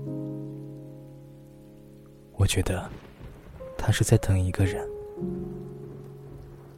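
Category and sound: nature, rain falling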